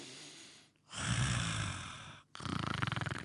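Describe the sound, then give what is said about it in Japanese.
A person mimics snoring, imitating a somewhat plump father snoring while napping on the veranda: a short breathy inhale, a long rough exhale, then a rattling, fluttering snore sound, with no talking. “お父さんがちょっと太った回のお父さんが縁側で昼寝してするといびきかきながらお腹が”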